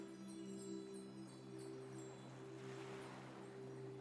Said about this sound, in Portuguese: Ouça a música de fundo. Ela é suave, de volume baixo tem alguns sinos, piano, ondas do mar